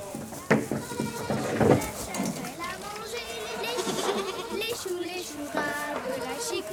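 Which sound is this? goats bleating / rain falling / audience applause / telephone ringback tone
goats bleating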